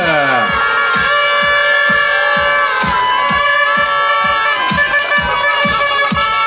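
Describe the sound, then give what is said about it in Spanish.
A large crowd at a festival queen pageant applauds and cheers loudly and continuously for a finalist receiving an award, with steady rhythmic booming beats and sustained horn-like tones running through the noise. “Fuerte el aplauso también para ella, por favor.”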